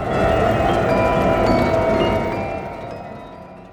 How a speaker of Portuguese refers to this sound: Os giros das rodas de aço eram ouvidos como ponteiros de um relógio em contagem regressiva.